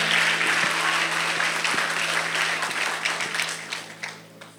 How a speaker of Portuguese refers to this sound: Se tem alguém para crer nessa palavra, aplauda Ele o mais alto que você puder. Uou!